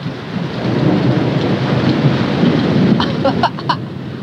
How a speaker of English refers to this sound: Now I suppose you spoilt little machine, you want to hear what the storm really sounds like. Can you hear?